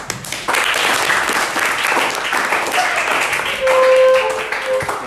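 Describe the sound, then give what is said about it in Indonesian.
An audience breaks into steady applause for everyone present, dense overlapping claps held at an even level for several seconds, with a few whistles or cheers rising near the end. “Tepuk tangan buat kita semua.”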